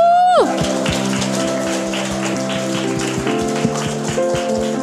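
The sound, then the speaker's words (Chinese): A crowd applauds steadily as a child is welcomed and introduced, many overlapping claps forming a dense crackling wash, with sustained musical tones holding underneath and a brief falling note at the very start. “我们给他热烈掌声！”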